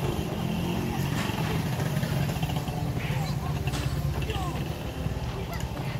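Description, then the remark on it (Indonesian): A Katana car's engine rumbles as it pulls up and parks in front of a house, then idles, a steady low drone with a bit of road noise that continues for the whole stretch. “Terdengar suara kendaraan parkir di depan rumahnya.”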